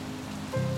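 Rain patters steadily on a hard surface on a rainy night in Málaga, a soft, continuous hiss with a low hum underneath that swells slightly louder in the last moment of the short stretch.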